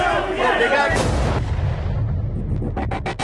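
Loud gunfire amid a noisy crowd: a couple of heavy blasts early on, then a quick series of sharp, rapid shots near the end, as a woman is shot in the neck.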